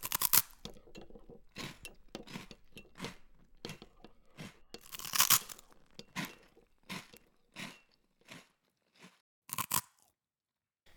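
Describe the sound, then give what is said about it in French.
Crunching and munching of biscuits in a kitchen by people sipping tea, a string of irregular crisp bites and chews that grow sparser and quieter toward the end, with no talking. “Alors, ils se rendirent dans la cuisine et commencèrent à grignoter quelques biscuits en sirotant du thé.”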